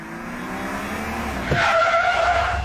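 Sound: car braking hard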